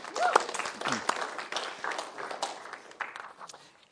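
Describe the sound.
A group clapping together, dense overlapping handclaps forming a steady burst of applause that holds for a few seconds and eases off slightly at the end, with faint voices mixed underneath.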